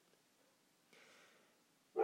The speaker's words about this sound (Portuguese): Desculpa os latidos aí dos cachorros.